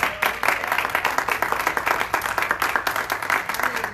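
An audience bursts into sustained applause, dense overlapping claps forming a steady, bright crackle for several seconds with no voices standing out.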